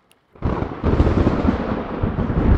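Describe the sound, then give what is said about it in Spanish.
A loud thunderclap breaks out of near silence as rain begins to fall and keeps rolling with a deep, rumbling roar that stays strong throughout, with no voices present. “Ahora está por caer un, un rayo, un trueno.”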